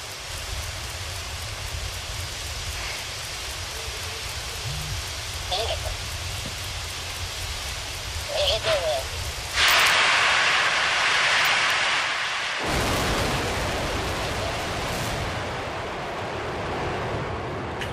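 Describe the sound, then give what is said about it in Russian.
A Soyuz-2 rocket launches from a cosmodrome, carrying scientific satellites to orbit, roaring steadily with a dense, hissing rumble that swells louder about halfway through, then settles into a sustained, powerful thunder that continues to the end. “Корабль «Союз-2» благополучно вывел на орбиту научные спутники.”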